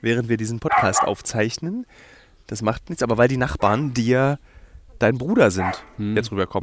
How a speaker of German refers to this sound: Das ist der Hund, der jetzt bellt,